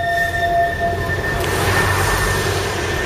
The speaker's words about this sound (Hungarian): Jó, és hogyha mondjuk itthon vagy Szegeden, és mondjuk a belvárosban élsz, laksz, akkor mennyire zavarnak ezek a hangok? Ez ugye a villamos.